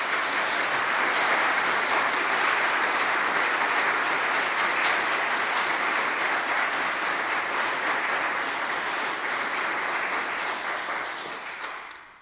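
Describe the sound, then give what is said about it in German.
The audience of the Weisach church community applauds at the end of a church service, a dense wash of many hands clapping at even loudness for about eleven seconds before fading out at the end. No one speaks over it. “Wir wünschen. Applaus”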